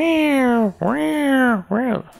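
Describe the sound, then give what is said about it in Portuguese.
A voice imitates a saw in a woodworking shop with three loud, drawn-out whining tones, two long and one short, rising and falling in pitch so they come out sounding more like a yowling cat. “O cara trabalha na marcenaria e ele fica o dia inteiro com aquele barulho de serra.”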